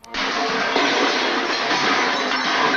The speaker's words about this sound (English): what actually happened was a crew member dropped the tray of props just after Thomas Mitchell, who played Billy, walked out of the shot